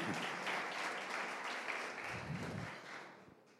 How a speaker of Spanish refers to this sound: si le vas a aplaudir, aplaudirle fuerte que es para Él.